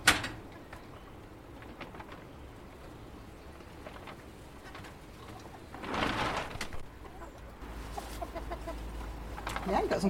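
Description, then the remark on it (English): Chickens cluck and murmur in a coop with fresh straw bedding. Scattered short calls sound throughout, with a louder flurry of activity partway through and a steady low rustle in the background. “there have been cases of avian flu there have been enough for the authorities to say that we need to keep our chickens inside to prevent the spread of avian flu.”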